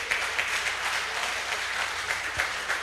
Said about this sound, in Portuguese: Em nome de Jesus. Quantos podem aplaudir o nome do Senhor?